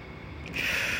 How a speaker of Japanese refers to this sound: 飛行機がうるさいですよね。これ、嫌になっちゃうね。これ、飛行機。アメリカの飛行機、ジェット機が朝から飛ぶんですよね、ここは。ほら1機が飛ぶとまた2機と3機飛ぶ